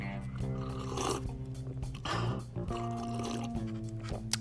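Wet slurping sips of tea, a few breathy bursts over several seconds, with a steady tonal hum underneath.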